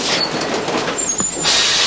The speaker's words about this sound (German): Sie lösen die Bremsen. Das heißt, der Zug fährt gleich.